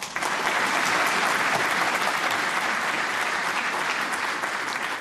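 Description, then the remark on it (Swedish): Steady applause from a group fills the whole stretch, a dense, even patter of many hands clapping at once, loud, with no voices on top. “Ja, vi borde haft en sån här golfklapp här, men den, den kan väl få en applåd i alla fall.”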